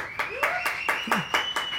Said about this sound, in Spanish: Ahí sí aplauden, ahí sí aplauden mis compañeros.